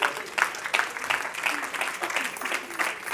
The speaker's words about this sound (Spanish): Den un aplauso al Señor esta noche.